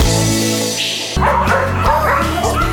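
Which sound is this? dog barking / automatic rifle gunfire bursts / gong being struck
dog barking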